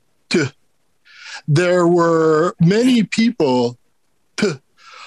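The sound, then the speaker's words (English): A man talking inserts short, rough throat-clearing noises between his words, imitating a teacher's vocal tic, popping up in brief bursts a few times. “not only was the subject boring and the teacher uh, boring and he spoke very slow but he would also have a vocal tick where um, you know he would add the sound to things he'd be like in ancient Sumeria,”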